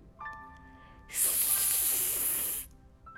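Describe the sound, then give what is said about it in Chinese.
A sudden, loud burst of high-pitched hissing air as a tractor's rear tire is punctured by an old rusty rake, holding steady for about a second and a half, then cutting off abruptly as the tractor stops. “拖拉机的后轮胎被刺破了，一下子就停了下来。”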